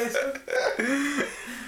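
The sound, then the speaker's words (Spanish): A croaky burp drawn inward from swallowed air, coming as a few gulping, throaty pulses over about two seconds, fairly loud with no talking. “Tragué aire. Tragué aire. Eructo. Para adentro.”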